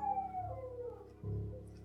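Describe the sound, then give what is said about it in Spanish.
A dog's long, mournful, persistent howl slides slowly downward in pitch, steady, over a low rumbling background that swells near the end. “Me encontraba en mi casa, pero aún así Seguí escuchando el aullido pertinaz del perro.”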